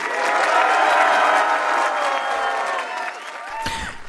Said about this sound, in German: Ihr müsst in die Kamera hineinklatschen und zwar jetzt nochmal ganz doll.